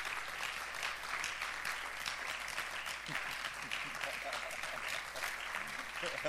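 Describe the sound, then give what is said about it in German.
An audience stands and applauds steadily as a clap offering to the Lord, a dense, continuous wash of many hands clapping at once, fairly loud and sustained throughout without any break. “Lasst uns Gott mal einen Applaus geben.”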